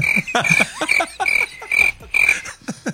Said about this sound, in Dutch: drie krekels, waarvan, ja. waarvan één geblondeerd.